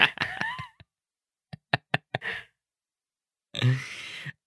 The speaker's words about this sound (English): so knock number was it? What am I on? That was, Three? Oh, I don't know. Was that knock number two or number three? I don't I don't remember.